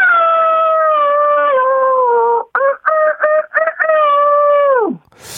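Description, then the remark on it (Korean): A person imitates a rooster crowing at dawn with a long, loud, strained held note, then a burst of short choppy calls ending in a falling wail; no other talking. “먼저 새벽에 우는 닭.”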